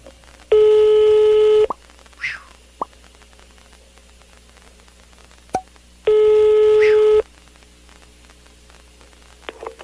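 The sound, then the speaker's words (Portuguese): A telephone line rings while waiting for the call to connect: two loud, steady one-second tones separated by a long pause, with faint clicks and low static in between. “Vai, liga, liga.”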